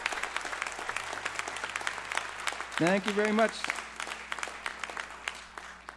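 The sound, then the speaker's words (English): Steady applause from an audience fills the whole stretch, a dense patter of many hands clapping, while a man briefly says a few words of thanks over it partway through. “Thanks for that clapping.”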